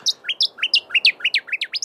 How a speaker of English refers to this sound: I believe that it may be the noisy scrub bird unbelievable. What a beautiful song. Some some ornithologists describe the noisy scrub bird's sound as ear splitting, uh, because if you're anywhere near it, it's just yeah, real loud.